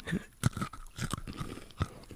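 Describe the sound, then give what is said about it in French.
Someone chews dry Purina dog kibble in a tasting, with loud, irregular crunches breaking through steady grinding and mouth noises. Nobody speaks. “merci pour l'invitation pour manger des croquettes purina.”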